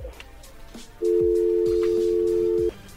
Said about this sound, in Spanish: ¿Ya colgó, ah? Sí, ya colgó, ahí se está marcando de nuevo.